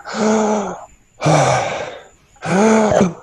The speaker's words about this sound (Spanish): Lo puedes probar. Si haces unas inspiraciones por la boca muy grandes.